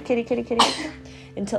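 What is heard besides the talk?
sneeze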